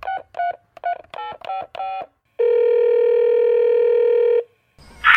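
A quick series of seven touch-tone beeps as a number is dialed to call a guest live for the Corimba Fone segment of a program, followed by one long steady ringing tone on the line, then a brief rustle as the call connects.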